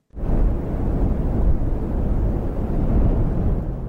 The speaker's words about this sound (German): Du hörst hier gerade Wind in der Wüste, aber warum lasse ich diesen Wüstensound hier jetzt gerade abspielen?